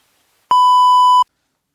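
A single steady electronic beep, loud and clear, lasting under a second with a sharp start and stop: the tone an answering machine sounds before recording begins.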